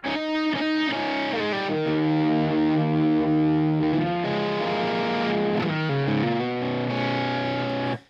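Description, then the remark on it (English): A heavily overdriven electric guitar, played through stacked overdrive pedals including an Olympus into a slightly dirty amp, plays a lead line of sustained, singing notes with a few quick note changes, loud for about eight seconds, with no talking. “And even into that amp, which is a little dirtier than I normally run, like that's still a good lead sound.”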